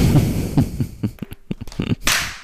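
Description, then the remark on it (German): A loud hand clap struck right into the microphone, heard as a run of sharp, harsh cracks and thumps over about two seconds, with no talking. “die hat gerade einfach ins Mikro geklatscht.”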